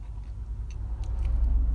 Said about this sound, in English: But yeah, a lot of people at the beach and also a lot of traffic. I hate a lot of traffic on the 101. Going west on the 101. Hit hit some traffic.